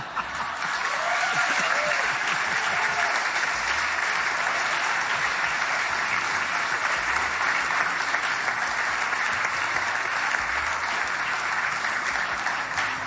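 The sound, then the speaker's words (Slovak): Steady, sustained applause from an audience in 2016 for four people who came for free, a dense wash of many hands clapping at an even, loud level without a break, with a faint murmur of voices underneath. “Patrím veľký potlesk.”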